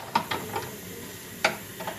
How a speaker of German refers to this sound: sprühen Colin und Malik alle Steine, den Moos und die Äste im Terrarium mit Wasser ein